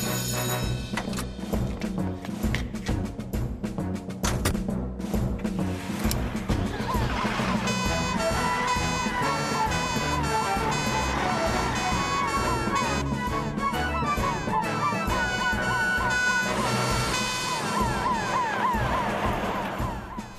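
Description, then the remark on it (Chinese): A fire engine siren, said to sound like Jupiter, wails in repeated rising and falling sweeps, joining partway through over busy background music and staying loud and steady until the end. “哎，嗯，呃，听起来像木星号。”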